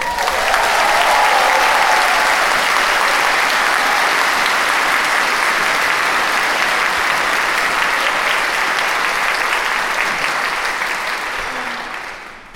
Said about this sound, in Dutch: Welkom haar met een applaus. We zijn blij en trots dat ze hier staat. Uw dichter des vaderlands, Lieke Marsman.